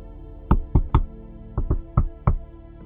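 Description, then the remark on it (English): Seven sharp knocks on the wooden door of a small meeting room above a pub, a secret coded pattern: three quick raps, a brief pause, then four more, with no voices. “He knocks, a secret, coded knock, on the door of a small meeting room above the pub.”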